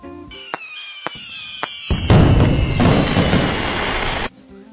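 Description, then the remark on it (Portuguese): Fireworks burst in sharp cracks at first, then a rushing whistle rises into a dense, crackling roar of explosions that fills a few seconds before cutting off abruptly. No one speaks. “Hoje eu vou falar sobre a química dos fogos de artifício.”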